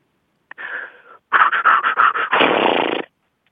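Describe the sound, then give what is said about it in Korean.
A voice imitates a ketchup bottle being squeezed: a short wheezy hiss, then a quick run of sputtering bursts ending in a longer, broad spluttering rasp. Fairly loud, with no talking. “이제 케찹 짜는 소리.”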